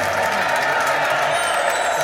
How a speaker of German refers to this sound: Na gut, als Kriminaldirektor Harsch unter frenetischem Jubel die Bühne des Planetariums betritt.